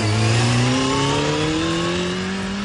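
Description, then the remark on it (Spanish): A toy Playmobil police motorcycle's engine revs loud, its droning pitch climbing steadily as it accelerates for a few seconds, with no voices over it. “montado en la moto de policía de Playmobil”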